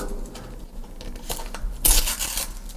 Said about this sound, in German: Äh, hier ist ein Polizeisiegel an der Tür. Das müssen wir jetzt erstmal abmachen.